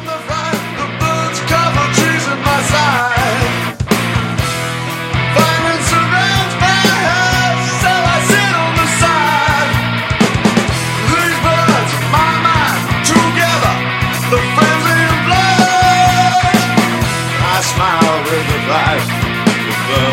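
A loud grunge rock song plays continuously, with dense distorted guitars, steady drums and a sung melody filling the whole stretch at a consistently high level.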